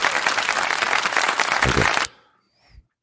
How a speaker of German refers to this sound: Applaus bitte einspielen. Jetzt muss ich wieder zum Soundboard rollen.